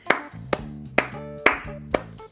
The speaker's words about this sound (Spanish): Y dicho esto, os mando un aplauso